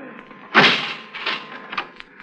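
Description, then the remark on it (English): A heavy door to a cold meat storage room in a kitchen is heaved open by its large, cold handle with a loud, scraping whoosh, followed by a few softer creaks and knocks as it swings and settles. “The door to the meat storage room. I heaved it open.”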